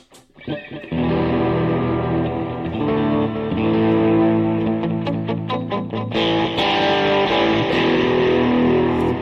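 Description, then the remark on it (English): An electric guitar with a chorus effect rings out in loud, sustained chords with a wavering, shimmering tone, picked notes ticking through the middle, and no one speaking. “Wow, listen to that chorus. That's so weird.”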